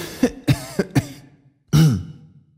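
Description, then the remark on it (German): A person clears their throat in four short, quick rasps, then lets out one longer, louder cough after a brief pause: the sound of a butler with a slight cold. No talking. “So klingt es, wenn Ihr Butler leicht erkältet ist.”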